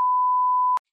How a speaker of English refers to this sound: oh, hang on, that's my phone.